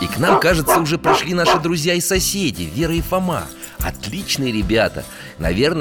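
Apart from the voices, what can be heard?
dog barking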